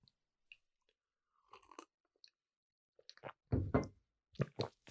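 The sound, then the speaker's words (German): Mouth sounds of someone taking a short sip of coffee and then a sip of water: a few soft, wet slurps and swallows with short pauses between them, quiet at first and louder toward the end, no talking. “Kurzer Schluck Kaffee gefolgt von einem Schluck Wasser.”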